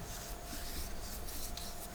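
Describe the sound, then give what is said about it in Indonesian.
Someone scratching their belly: a steady, soft raspy rubbing that continues for about two seconds with no one speaking. “gue garuk-garuk perut”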